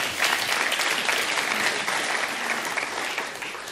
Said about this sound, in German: Cool, dass ihr da seid. Applaus für euch.